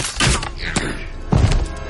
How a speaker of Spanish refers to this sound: Dispara su ballesta.